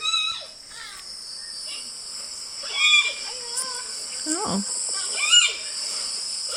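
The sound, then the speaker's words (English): A panda's high squeaky vocalizations, thin rising and falling chirps repeated irregularly over a steady insect-like hiss, with a brief voice interjection. “That's kind of a lame bear sound.”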